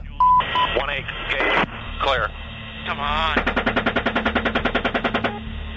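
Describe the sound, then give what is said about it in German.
Rapid bursts of machine gun fire from soldiers shooting at wounded people and a minibus rescuer crackle through a narrow, band-limited radio channel, preceded by garbled radio voices and static, with a steady rhythmic volley dominating the second half. “ein Minibus neben den Verletzten hält, um sie zu retten, wird auch der Retter gezielt beschossen.”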